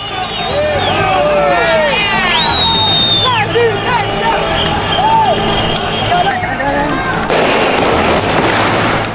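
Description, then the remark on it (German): A chaotic protest crowd in Venezuela with many voices shouting protest chants and screaming at once, high wails rising over the din, gunshots, then a harsh, loud bang near the end amid the ongoing commotion. “Protestrufe, Schüsse, Schreie und irgendwo ein lauter Knall.”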